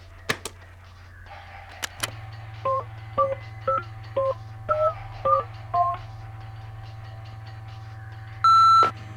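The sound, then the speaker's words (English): A quick run of phone keypad dialing tones as a call is placed to maintenance, about eight short paired-tone beeps at a brisk, slightly uneven pace, followed by a longer steady tone, over a low background hum with a few clicks at the start. “Hand me the phone.”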